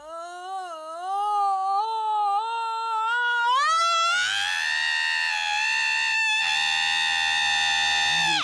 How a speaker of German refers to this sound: ein Wecker, der schreit.